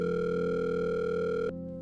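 A steady electronic telephone ringing tone on an outgoing call to the caller's mother, loud and continuous, dropping to a quieter tone just before the end, with no voices.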